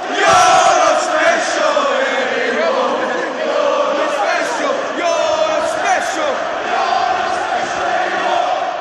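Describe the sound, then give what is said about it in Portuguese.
A large crowd of Newcastle football fans chants in unison, mocking José Mourinho's claim to be a special coach: a loud, sustained sung roar with a rising and falling melody that carries steadily for the whole stretch, no individual voice standing out. “Lembrando que o José Mourinho, na primeira passagem dele pelo Chelsea, logo na primeira coletiva, ele disse que era um treinador especial e a torcida do Newcastle tirou sarro disso. Vamos ouvir um pouquinho também.”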